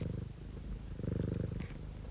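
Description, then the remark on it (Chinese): A pet cat purrs steadily, a low rumbling with a fast, even pulse that swells slightly in the middle, with a faint high squeak near the end; no one speaks. “谢谢未来预想图的读者们提供的各家猫狗主子的声音。”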